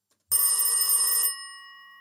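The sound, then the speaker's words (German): A single loud burst of an old-fashioned telephone bell ringing, a rapid metallic trill lasting about a second, then a bright ringing tone that fades away. No one speaks. “hat dann irgendwann einen Telefonanruf von John Lilly bekommen”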